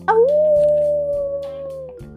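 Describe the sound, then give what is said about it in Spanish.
A single long wolf howl, rising quickly then holding a steady, drawn-out pitch for about two seconds. It is loud, over a low, repeating musical background. “Cuando estuvo fuera, se dio cuenta de que sus amigos lobos estaban sobre el vehículo volador.”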